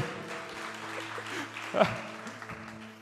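An audience applauds with a dense, steady wash of clapping that lasts about three seconds, swelling briefly near the middle, while sustained keyboard-like tones hold underneath.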